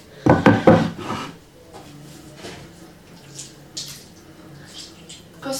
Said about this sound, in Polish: Teraz wyjmę deski do krojenia i nóż. Zaczynam kroić w kostkę.